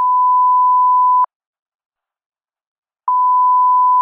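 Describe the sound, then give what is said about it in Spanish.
A payphone's time-running-out warning, sounding 10 seconds before a 3-minute token call ends to signal the end or the moment to deposit another token: a loud, steady mid-pitched tone sounds for over a second, stops for about two seconds of silence, then starts again, with no voices. “Esta ficha o token duraba 3 minutos, pero 10 segundos antes de que termine ese tiempo se activaba un sonido.”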